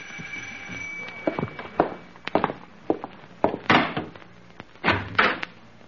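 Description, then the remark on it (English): A front door is unlatched and opened at eight o'clock to answer the bell, with no one outside, making a run of sharp clunks, rattles and thuds spread over several seconds and no voices. “That's funny. No one's at the door.”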